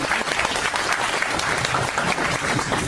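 audience applause

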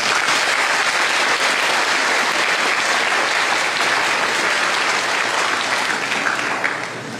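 applause

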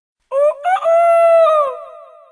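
rooster crowing

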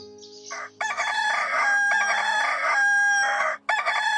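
rooster crowing

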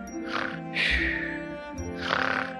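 old woman snoring

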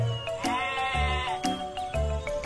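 sheep bleating

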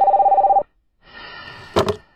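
telephone ringing

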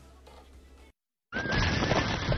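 horse neighing

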